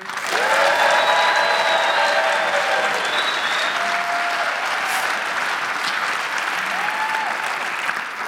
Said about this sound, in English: I want them to be able to hear us. That's the goal. So, can we cheer on the count of three as loud as we can and clap for what's taking place? One, two, three.